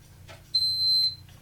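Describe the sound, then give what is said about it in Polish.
A clock plays a single high-pitched electronic alert tone, the same tone a camera sounds when someone breaks in at the door. It sounds once, holding steady for under a second before cutting off, with a faint low hum in the background and no talking. “Ja ci to zademonstruję w tej chwili, tylko że nie na kamerze, a na moim zegarze, yy, który mam tutaj.”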